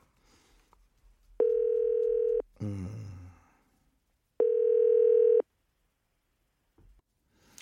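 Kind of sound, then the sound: signal or alarm, telephone dial tone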